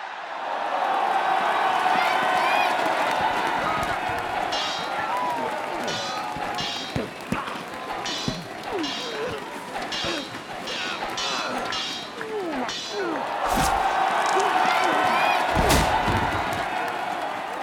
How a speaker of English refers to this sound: As they drag his bloodied body back into your tunnel, you hear the announcement of Tidal Wave Dan and the Rodanian crowd cheering.